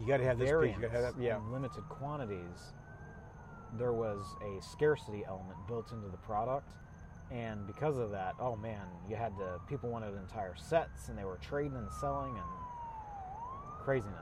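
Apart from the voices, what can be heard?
ambulance siren approaching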